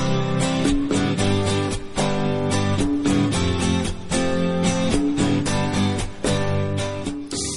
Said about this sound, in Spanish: Hemos llegado al final de nuestra emisión y ya suena de fondo la melodía que os acompañará en nuestras despedidas.